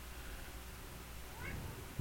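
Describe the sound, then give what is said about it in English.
A cat meows softly, one short faint meow and then a clearer one partway through, over a low steady background rumble with no talking. “Meow. Kitty meow. Yeah, keep it down.”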